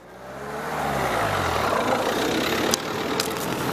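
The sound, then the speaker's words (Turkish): A car engine idles after the power button is pressed, its rumble swelling in the first second before settling into a steady, continuous drone with a few faint clicks near the end. No one speaks. “Bas power'a. Şu anda araba çalışıyor.”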